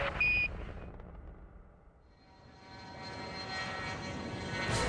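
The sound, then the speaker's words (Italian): The engine of a NASA X-15 rocket plane roars loudly during a NASA pilot test in November 1961, as a broad, continuous rumble that briefly dips, then swells again with a rising whine layered on top, with no voices present. “I piloti della NASA testano l'aereo razzo X-15.”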